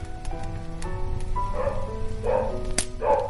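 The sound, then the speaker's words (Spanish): A few dog barks come in short, spaced bursts over a steady rain-like hiss and a faint sustained background tone. “Ladran los perros.”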